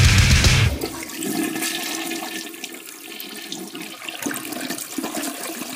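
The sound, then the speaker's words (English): A toilet flushes loudly, opening with a sharp rushing burst, then settling into a steady swirling gurgle of draining and refilling water that continues to the end. “You're listening to 66.6 FM, Radio TOVH, The Flush.”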